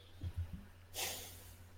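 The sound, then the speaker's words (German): A man huffs and snorts through his nose: a few short, low puffs followed by one longer, airy exhale that trails off. It is fairly quiet, with no talking. “du schnaufst.”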